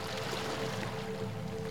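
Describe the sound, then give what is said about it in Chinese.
Ocean waves roll in and break on a sandy beach as a steady, unbroken rumbling wash of surf, fairly loud and even throughout, with a low drone and a faint steady tone beneath and no voices. “一层海浪远远的过来，轻轻的隆隆声越来越近，声音却越来越响，直到浪头拍打在沙滩上，留下“哗”的一声，又迅速的回撤回去。”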